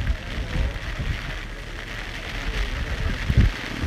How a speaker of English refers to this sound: Uh, most normal people would give up in this weather. This is, uh, you can hear the rain.